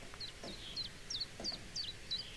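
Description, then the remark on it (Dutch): A common chiffchaff sings its spring song, a steady run of about six bright, high notes, evenly spaced and alternating slightly in pitch, over a faint low background rumble. “Het geluid van de lente vind ik toch weer chif-chaf fantastisch.”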